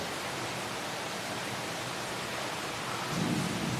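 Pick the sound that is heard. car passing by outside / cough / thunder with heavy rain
thunder with heavy rain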